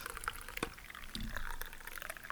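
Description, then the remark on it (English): Coffee being poured into a mug in the morning, a brief splashy trickle with small drips and clinks, moderately quiet, with no talking. “I'm making pour more coffee. That's a great sound.”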